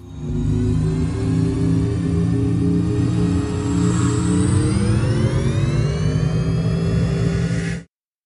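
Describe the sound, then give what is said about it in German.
A synthetic electric car acoustic vehicle alerting sound, a sample by the UN Economic Commission for Europe of how electric cars could sound, hums steadily with layered tonal drones, rising smoothly in pitch midway as if the vehicle speeds up, then cutting off abruptly near the end. No voices. “Die UN-Wirtschaftskommission für Europa hat sogar ein Klangbeispiel, wie Elektroautos klingen könnten, ins Internet gestellt und das klingt so.”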